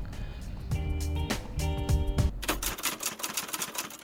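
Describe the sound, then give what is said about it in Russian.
A short radio station bumper jingle played as the show goes to a break: a couple of bright sustained synth tones, then a burst of rapid typewriter-like clacking, loud, with no voices. “Перезвоните в следующем часе, потому что мы сейчас уйдем на отбивку и вернемся через некоторое время.”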